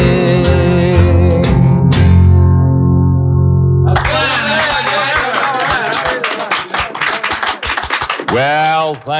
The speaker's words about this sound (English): Thank you, gang. I sure do appreciate that fine applause. That wasn't good, but it was loud.